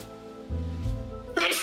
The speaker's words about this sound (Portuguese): Saúde. Vou espirrar. Obrigado, foi mal.